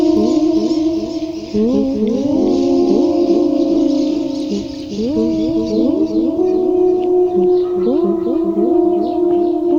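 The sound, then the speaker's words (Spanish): A dense chorus of songbirds sings continuously, many overlapping whistled and warbling calls rising and falling in pitch, fairly loud and steady throughout, with no talking. “las conexiones que tengo con la naturaleza o el lugar en donde vivo, que para mí es como un gran desierto con oasis de pájaros cantores.”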